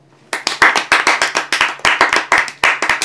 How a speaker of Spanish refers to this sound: Este aplauso para ti.